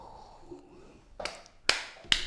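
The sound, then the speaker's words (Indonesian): Three sharp knocking taps, used as a metronome count, land at a steady, even pace, crisp against a quiet background, with no one talking. “Kalau tadi terdengar suara ketokan-ketokan itu memang konsep dari kita”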